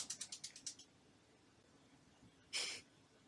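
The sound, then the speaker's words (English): A pet ferret waking up and moving around: a quick run of about seven soft scratchy rustles, a pause, then a short breathy snort or sneeze. Fairly quiet, in the background, with no one talking. “My ferret has decided that it's time to wake up, like she always does, right in the middle of recording.”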